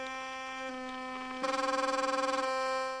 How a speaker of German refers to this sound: Vibrato, leichtes Beben oder Zittern eines Tones. Das Vibrato gehört zu den zahlreichen Alltagsgeräuschen, die uns umgeben. Hören kann man es in der elektrischen Zahnbürste.